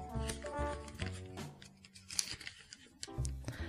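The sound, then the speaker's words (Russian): Crisp paper tearing and rustling in short bursts as a standard envelope with red and blue striped edges, a letter sent from Kfar Hogla, Israel, to Zaporizhzhia, Ukraine, is ripped open, with a voice murmuring at the start and end. “Открываем.”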